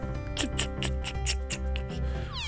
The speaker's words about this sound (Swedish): Och sen eh, ser, hör du en, en, en speciell skrivare.